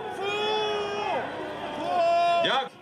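A crowd of demonstrators in Kiev, Ukraine, boos opposition leaders addressing them in the evening after their talks with the president failed, in loud, long, sustained drawn-out jeers that rise and fall in pitch, holding steady for a few seconds before swelling and cutting off.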